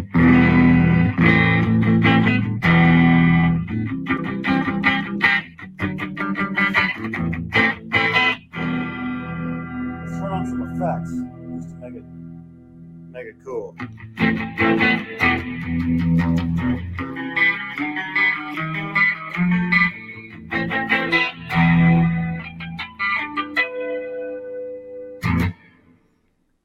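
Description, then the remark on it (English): Electric guitar played through a Lekato wireless guitar system and recorded with an iPhone's front-facing camera, strummed chords and quick riffs with heavy effects, echo and a chorus-like shimmer, loud and mostly continuous, with a brief spoken word near the end. “Well, I mean, as far as my playing, just want to show you guys that I am using the uh, the unit Lekato guitar wireless system, and it sounds great.”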